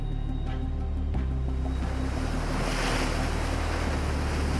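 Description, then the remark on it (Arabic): Steady rush of high sea waves and water striking the wooden hull of a smuggling yacht stopped in the middle of the sea, with a low engine-like rumble and wind buffeting throughout; no voices, continuous. “انطلق المركب وبعد أربع ساعات فقط توقف في الماء الموج عال والمياه تضرب خشب اليخت نحن في منتصف البحر”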